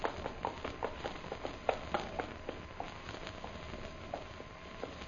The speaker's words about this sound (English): I can hear horses' hooves, too.